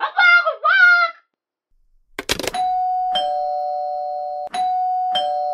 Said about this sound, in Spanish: nada más colgar a Cacerolo suena el timbre